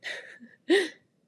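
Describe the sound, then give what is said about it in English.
A nine-year-old dog in an office lets out two quick noises, a breathy huff followed by a louder snorting whine, with nobody talking and quiet around them. “That's my dog again.”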